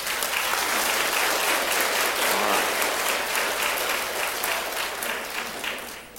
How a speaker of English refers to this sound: Can we please give them just a round of applause?